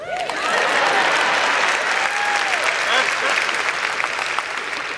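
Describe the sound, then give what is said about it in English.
An audience claps loudly and continuously for several seconds after Storm from the X-Men is named, a dense steady wash of many hands, with a few high whoops and cheers rising above the applause. “Y'all should be clapping right now.”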